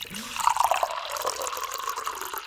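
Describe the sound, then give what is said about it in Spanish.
Water pours steadily into a glass for a couple of seconds, a continuous splashing gurgle with a faint ringing tone as the glass fills. “Tomemos un poquito más de agua, ¿querés?”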